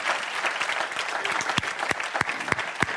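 An audience claps their hands together, a dense wash of many overlapping claps with a few sharper, louder claps standing out near the end. The sound is steady, with no talking.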